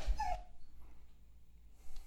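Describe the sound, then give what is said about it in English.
A dog wanting attention and eager to go out of the house gives a brief, high whimper right at the start, a short whiny yelp, then all falls quiet apart from faint background rustling near the end. “Um, and it sounds like you have a dog wanting That's right. some attention.”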